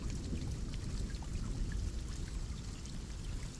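Steady heavy rain during a thunderstorm pours down in a dense, continuous hiss with a low rumbling undertone, scattered drops pattering throughout. No voices, and no distinct thunderclap stands out.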